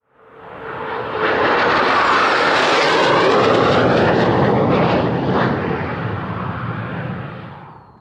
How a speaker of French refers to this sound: On peut y voir de magnifiques atterrissages et décollages d'avions aujourd'hui devenus très rares